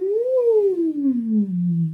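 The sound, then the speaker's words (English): A single voice hums a smooth, continuous glissando as a vocal exercise, rising briefly and then sliding steadily down to a low pitch through the vocal range, steady and fairly loud, with no words. “Um, and as your voice starts to feel more flexible, you can start to play around with um, a gentle hummed glissando.”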